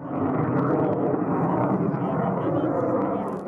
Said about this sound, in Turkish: Yüksek ve alçak irtifada uçan F-16'lar kameralara böyle yansıdı. Ankara üzerindeki test uçuşları bugün de devam edecek.